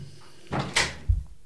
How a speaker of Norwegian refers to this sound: Lukker du døra